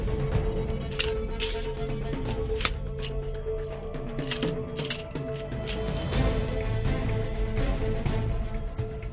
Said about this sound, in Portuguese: Vocês ouvem um barulho de metal.